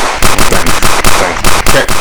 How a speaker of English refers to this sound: A couple gunshots in there.